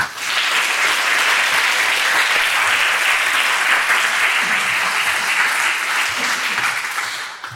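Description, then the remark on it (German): Sustained, loud applause from a large audience welcoming Thorsten Schleif onto a show, a dense wash of clapping that stays steady throughout before easing slightly at the very end. “Also herzlich willkommen und großen Applaus für Thorsten Schleif.”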